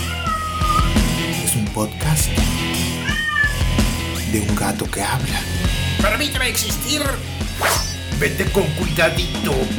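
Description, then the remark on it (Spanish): A person imitates a cat, letting out a series of drawn-out, pitch-bending meows over a steady, dense background of other sound that runs throughout. “Yo... siendo el gato, en este caso.”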